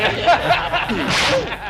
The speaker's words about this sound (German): Und daraufhin hat er mir dann im Parkhaus eine ganz heftige Ohrfeige gegeben. Eine Ohrfeige.